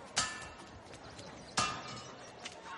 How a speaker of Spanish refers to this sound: En Esparta, el herrero trabaja sobre el yunque, forja a golpe de martillo una punza de lanza al rojo vivo.